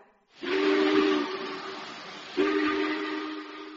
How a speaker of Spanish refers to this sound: y justo en ese momento oí ese silbido tan fuerte que hacen los trenes cuando les dan la salida.